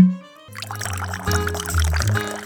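Wine pours steadily into a bottle, a gurgling fill that rises in pitch as it continues, moderately loud after a brief low tone at the start.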